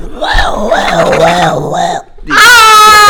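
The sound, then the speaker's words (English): A voice imitates a flushing urinal with a long, wavering, moaning tone, then breaks off briefly before a loud, strained high-pitched burst. It is fairly loud, with no other sounds. “we just like the sound was like, whoosh, and we all started just laughing”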